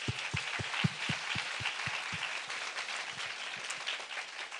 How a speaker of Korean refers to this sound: 자, 우리 기도 많이 했으니까 우리 박수로 다시 한번.